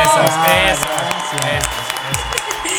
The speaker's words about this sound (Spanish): pon aplausos para Rojo ¡Bravo!